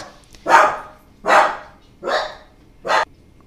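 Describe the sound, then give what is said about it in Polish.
A female dog barks four times in a steady, evenly spaced series, each bark loud and broad, with quiet pauses between them and no talking, reacting to movement in the building's stairwell. “Mela zaczęła szczekać, bo czyli moja suczka, bo ona tutaj każdy, każdy ruch na klatce wyczuwa”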